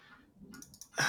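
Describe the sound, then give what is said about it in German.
A voice imitates audio crackling, like an AUX cable not plugged in properly, with a quick run of sharp, clicky pops, ending in a louder, harsher burst, fairly quiet overall. “So, so Audio-Knacken.”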